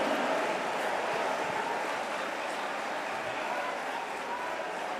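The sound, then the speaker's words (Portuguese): A crowd claps steadily and densely for the full stretch, a continuous wash of many hands at an even, fairly loud level with no individual claps standing out, applause during a sermon, offered in worship of Jesus. “Se é esse aplauso é para adorá-lo, glorifique o nome dele, aleluia.”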